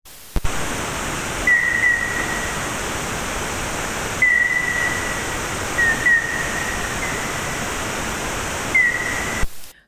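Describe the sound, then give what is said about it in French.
A common noctule bat call, slowed down enough to be audible to the human ear: four or five short, whistly downward chirps at irregular intervals over a steady bed of loud hiss, with no voices. “Ce cri est suffisamment ralenti pour pouvoir être audible.”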